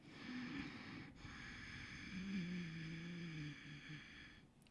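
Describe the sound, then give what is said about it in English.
A person demonstrates ujjayi breathing, a slow, raspy breath drawn through a constricted back of the throat, steady with a rough, snore-like hiss, one long breath with a brief pause near the start. “Ujjayi is where you constrict the back of your throat, and then it sounds like a little bit like an ocean wave when it's you like, breathe.”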